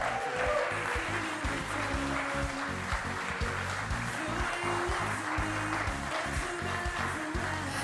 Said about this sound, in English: So, why don't we give a huge round of applause as she comes up